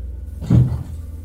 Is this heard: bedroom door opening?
yes